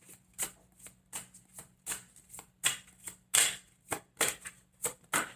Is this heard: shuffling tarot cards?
yes